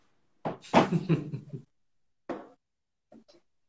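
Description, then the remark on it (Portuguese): A door is handled and pushed shut: a scraping, rattling burst of about a second, then a short thud a moment later and a faint click of the latch. “Eu vou, eu vou até fechar a porta aqui que o tema é faixa preta.”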